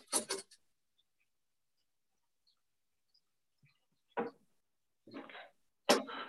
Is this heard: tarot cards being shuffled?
yes